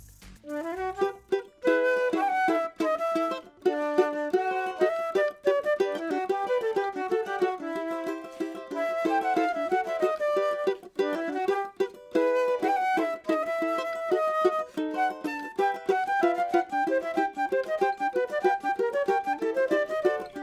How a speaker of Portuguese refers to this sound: respectivamente cavaco e flauta do Chora Mulheres na Roda, fundadoras do grupo, e que vieram aqui fazer uma visita tocando música boa